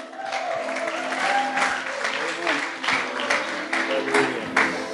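A crowd at a church service applauds steadily for several seconds as a man is called up to the stage, a dense wash of many hands clapping at an even, fairly loud level, with faint voices mixed underneath.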